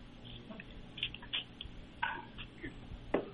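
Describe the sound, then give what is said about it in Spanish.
A phone being dropped and fumbled: a scattered series of light clicks, taps and knocks, fairly quiet, ending with a slightly sharper clatter. “Perdón, que se me cayó el teléfono aquí.”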